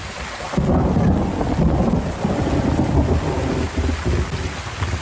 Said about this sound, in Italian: Allora, abbiamo a disposizione diversi tool per mixare i suoni che ci piacciono, quindi tipo la pioggia, i tuoni